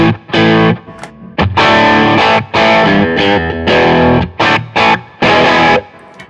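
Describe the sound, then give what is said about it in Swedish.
Electric guitar driven through a Honeybee overdrive pedal, played as loud, gritty chord bursts with short pauses between them, sustained and harmonically rich, with no talking. “Vi går till eh, eh, eh sist men inte minst en honeybee.”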